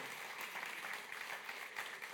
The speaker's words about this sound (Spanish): No, no, ¿cómo arrancaste un aplauso?